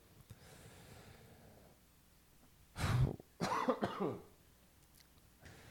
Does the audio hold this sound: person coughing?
yes